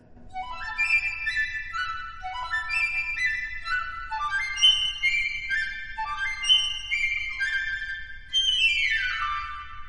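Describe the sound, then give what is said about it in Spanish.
A piccolo plays quick, bright trills in bursts of rapidly alternating high notes, climbing in repeated cascading runs. The playing is steady and fairly loud with no voices. “Yo soy Pícolo, el Benjamín de la familia, dijo el pequeñísimo instrumento.”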